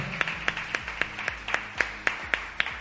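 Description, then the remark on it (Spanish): An audience applauds a celebrity guest with steady, evenly paced clapping, roughly ten sharp claps in quick succession over a faint background hum, with no one talking. “Un aplauso para nuestro famoso.”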